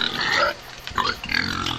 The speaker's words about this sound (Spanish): Cerdos, cochinos, jabalíes, llámales como quieras a los cerdos salvajes. No son otra cosa que invasores.